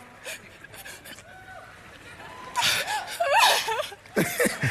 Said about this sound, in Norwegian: Altså, dette, dette, fortsetter, dette fortsetter i to minutter. Hun, eh, hun gråter seg gjennom hele taktalen.